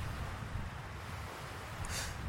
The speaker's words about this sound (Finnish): Kävelen majakan eteen termospullo kädessä, puolillaan yli tunti sitten keitettyä kahvia ja katson merelle. Aalloista näkee tuulen olevan vähintään kaksin verroin kovempi kuin kolme päivää sitten.